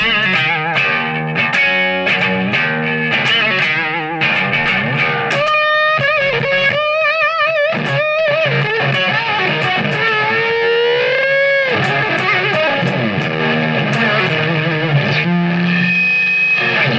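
A distorted electric guitar plays bluesy rock riffs with bends and sustained, effect-laden notes, loud and continuous for the whole stretch, with no talking.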